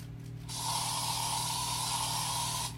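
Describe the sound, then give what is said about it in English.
A steady, continuous hiss of an aerosol insecticide spray held down for about two seconds, fairly loud, starting abruptly and cutting off at the end, with a low hum underneath. “I just it says to like spray like surrounding surfaces.”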